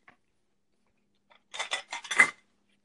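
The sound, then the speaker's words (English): Ice cubes clatter out of a fridge dispenser in a quick run of four or five bright, rattling bursts lasting about a second, after near silence, with no talking. “So you would uh, you would just hit the ice thing and uh, get that going.”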